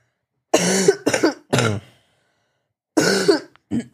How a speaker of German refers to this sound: Grippe doch noch nicht ganz vorbei. So. So, frei, frei gehustet.